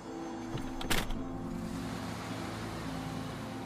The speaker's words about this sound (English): The moment I sat back into the soft leather seat of this luxurious Rolls Royce, I realized whose car I was riding in. It was Winston Churchill's.